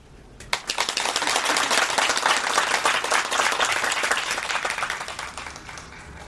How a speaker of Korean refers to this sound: 소개가 끝나자 박수가 터졌다.